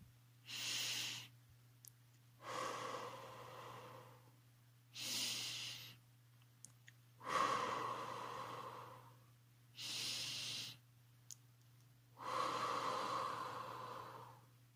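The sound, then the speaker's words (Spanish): Three slow, deep breaths, each a sharp airy inhale followed by a longer, fuller exhale through pauses, with a faint steady hum underneath and no talking. “Pero antes de comenzar, Recuerda tomar un minuto de respiración para poder disfrutar del cuento.”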